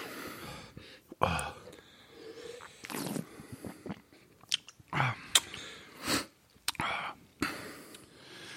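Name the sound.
chewing food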